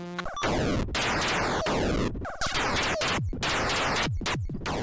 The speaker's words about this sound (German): Und so klang es, ein Raumschiff abzuschießen. Ihr konntet gerade Atari-Spiele hören. Atari-Spiele waren in den 1980ern die ersten Videospiele an Spielautomaten.